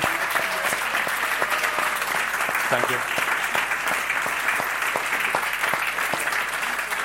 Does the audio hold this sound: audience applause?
yes